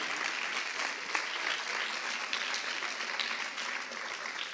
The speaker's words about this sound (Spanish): Dele palmas fuerte al Señor.